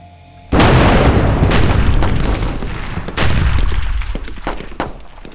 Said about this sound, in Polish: Nie, ten wystrzał nie robi na mnie wrażenia. Tak samo jak odgłosy artylerii w bitwie pod Waterloo.